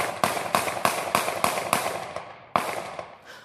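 Eight gunshots, fired by a police officer at a fleeing man in Charleston, ring out in rapid succession, sharp loud cracks in a quick steady rhythm, with a brief pause before the last shot. No voices.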